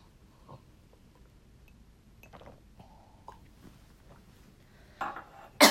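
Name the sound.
cough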